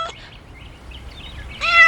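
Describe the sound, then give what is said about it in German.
A cat with one orange and one blue eye meows once near the end in a garden, a clear, rising cry with bright harmonics, following a short quiet stretch of faint background noise. “Eine Katze.”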